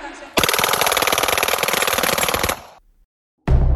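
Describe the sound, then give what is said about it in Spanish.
A loud burst of rapid automatic fire from a .40 automatic pistol, shot by a young man at a concert, rattles continuously for about two seconds, then stops abruptly, followed by a brief silence before another sharp sound begins. “El joven comenzó a disparar en pleno concierto contra Jennifer.”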